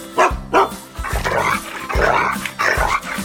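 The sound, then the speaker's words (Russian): A dog named Altai barks repeatedly in a quick, uneven series of sharp woofs, with a couple of short yaps at the start followed by longer, rougher barks, loud and with no talking. “А это мой верный Алтай спешит с вами поздороваться”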